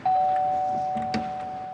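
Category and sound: household object, doorbell ringing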